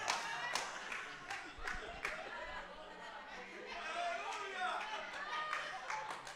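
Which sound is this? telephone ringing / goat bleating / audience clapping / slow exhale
audience clapping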